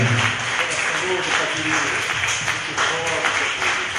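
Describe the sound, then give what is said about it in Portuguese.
An audience applauds the Lord after a prayer in a steady, dense wash of clapping that fills the whole stretch at an even loudness, with voices calling out underneath. “Vamos aplaudir Amém. o Senhor.”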